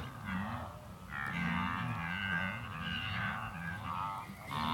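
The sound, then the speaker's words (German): Hundreds to thousands of wildebeest on a great migration at sunrise, calling continuously, many overlapping low grunting moos and nasal honks blending into a dense, steady chorus, heard from a hill, with no one speaking. “Wir kurven quer durchs Gelände, bis wir auf einem Hügel die ersten Gnus sehen und hören.”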